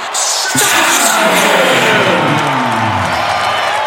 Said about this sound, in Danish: Og hele stadion råber med på efternavnet